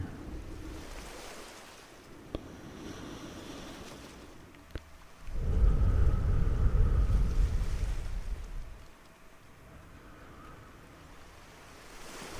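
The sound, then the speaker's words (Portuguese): Ocean waves wash onto the shore, one big surge swelling loudly and receding into a soft hiss, with gentle surf rumbling before and after and two small sharp clicks early on. “com as ondas do mar, vamos sentir a nossa respiração entrar e sair.”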